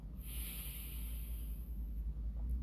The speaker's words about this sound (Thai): หลังจากนั้นให้หายออกใจออกช้าๆ ให้ชายโครงยุบกลับลงไปที่เดิม ทำสามถึงห้าครั้งเหมือนกัน โอเค ทำพร้อมกันครับ พร้อมแล้วหายใจเข้า หายใจออก